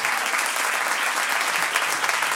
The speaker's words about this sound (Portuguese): Antes mesmo de começarmos isto e de falarmos de coisas que nós temos sobre o nosso podcast, uh, primeiro de tudo, uma grande salva para a minha mulher